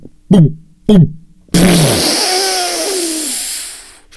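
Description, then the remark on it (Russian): A voice imitates a large coffee machine, plugged in through a power transformer, malfunctioning when its make-coffee button is pressed: two short buzzing sputters, then a long, loud hissing roar with a faint whine sliding downward before it cuts off. “я вставляю ее в трансформатор, трансформатор ставит розетку, нажимаю на кнопку делать кофе, она очень большая, очень красивая, нажимаю, и кофемашина делает так.”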